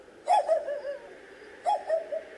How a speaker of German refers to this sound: Wir müssen dem Winseln folgen, auch wenn es schwer zu sagen ist, aus welcher Richtung es kommt.